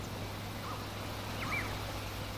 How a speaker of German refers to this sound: Hör die Vögel zwitschern.